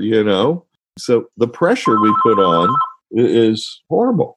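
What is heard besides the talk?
telephone ringing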